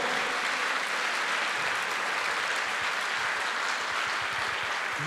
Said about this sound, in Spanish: Dele fuerte ese aplauso al Señor. Fuerte ese aplauso.